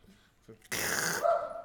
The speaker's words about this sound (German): Richtiges Geräusch im richtigen Moment haben wir so geplant. Ähm, ja, Fun Fact, das ist der Hund meiner Eltern und das war so genau geplant.